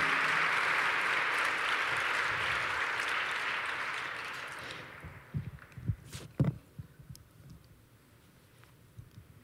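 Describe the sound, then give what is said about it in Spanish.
A crowd applauds for the Lord in a dense, steady wash of clapping for about five seconds, then it thins out into a handful of scattered, sharper claps before fading. “Entonces dale un aplauso al Señor.”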